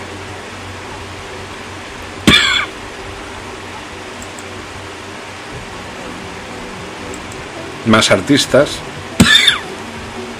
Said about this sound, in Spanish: Perdón por la tos. Es que está empezando a hacer frío.